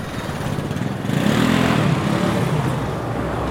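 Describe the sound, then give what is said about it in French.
Loud, steady roar of car traffic with engine rumble, echoing in a road tunnel as people make their way alongside it, swelling midway as a vehicle passes, then settling into a continuous dense drone. “Donc là, on est dans un tunnel, on longe un tunnel que les voitures empruntent avec enthousiasme. C'est très bruyant.”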